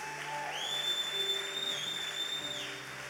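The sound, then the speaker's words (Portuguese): An audience applauds for Jesus with steady, dense clapping throughout, while a sustained high-pitched whistling tone rings over the clapping for about two seconds before fading out. “Podem aplaudir a Jesus?”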